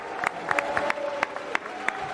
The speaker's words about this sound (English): Dillon Dan is in the house, ladies and gentlemen. You want boo or clap, whatever you want to do, is here. Mostly boos.